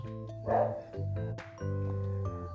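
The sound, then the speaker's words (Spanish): Dogs kept at a house bark and yelp in a quick series of tonal bursts, several overlapping, with no talking. “Por ejemplo, eh, yo tengo aquí en la casa tenemos perros.”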